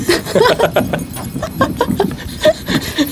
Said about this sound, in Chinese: 而且每个驯鹿上面都有挂着铃铛，然后一边走的时候都会有叮叮叮叮当当的感觉。